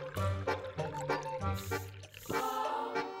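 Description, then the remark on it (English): Slurping and gurgling of cold water being sucked through a straw, in several quick pulls with short pauses between them, fairly loud and with no talking. “Yeah, I'm using a straw.”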